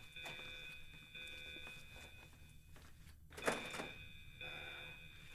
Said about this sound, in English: You see just like a Snapchat notification go off.